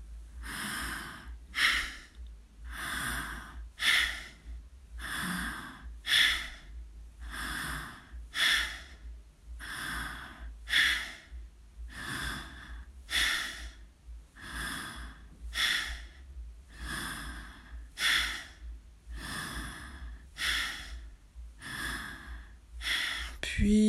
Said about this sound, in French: vous allez cesser cette respiration en soufflet. Laissez-vous respirer librement.